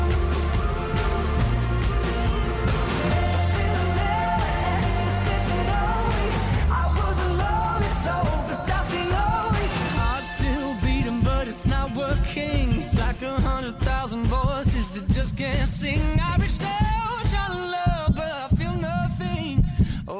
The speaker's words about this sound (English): What you hear isn't just any beat, it's the actual heartbeat of a child in need.